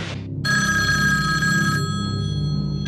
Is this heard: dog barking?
no